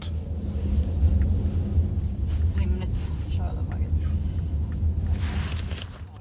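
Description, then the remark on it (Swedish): Steady, deep rumble of a car's interior while driving into a large site area, a constant low drone filling the whole clip, with faint muffled voices in the background. “och eh, sen åkte vi bil med henne in på området.”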